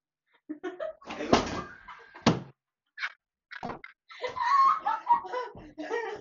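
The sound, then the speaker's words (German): A stool slides away and bangs loudly, a sharp clatter followed by a second thud, with laughter and voices breaking out around it. “Vielleicht hat man es knallen gehört. Das war ein Hocker. Mein Hocker rutscht weg.”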